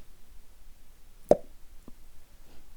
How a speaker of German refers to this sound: Du hast so mit deinem Finger so im Mund so ein Ploppen gemacht.